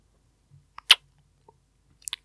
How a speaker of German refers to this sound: Warum schmatzt du hier so? Einfach so.